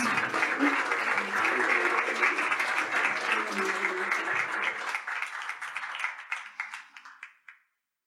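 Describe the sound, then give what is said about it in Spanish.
A crowd applauds with dense, steady clapping that holds for several seconds, then thins into scattered individual claps before stopping. A few voices murmur faintly underneath. “Retomar con este aplauso vuestro lugar, vuestros.”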